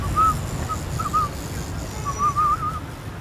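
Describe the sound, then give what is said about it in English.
A feeble, breathy mouth whistle, a bike messenger's attempted warning whistle: a few thin, wavering tones in short bursts, ending in a longer warbling attempt, over low background rumble with no talking. “which is ridiculous considering I can't really whistle.”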